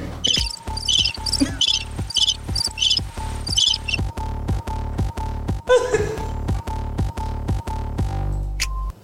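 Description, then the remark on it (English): A cricket sound effect: crickets chirp in rapid, regular pulses, loud, with a steady low hum beneath and no one speaking over them. “They ain't got a cricket thing the anything over there.”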